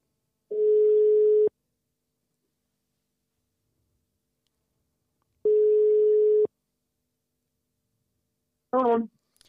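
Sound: telephone ringing tone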